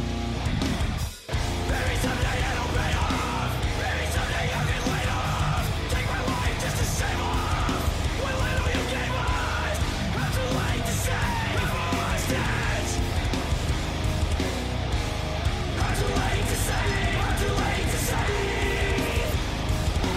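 Loud, dense heavy rock from a full band, with distorted guitars and pounding drums filling the whole clip, broken only by a brief drop in sound near the start.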